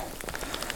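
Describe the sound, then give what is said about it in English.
Steady rain patters on hard surfaces, a dense, even hiss broken by brief brighter droplet taps, with no voices present. “Where does this rain come from?”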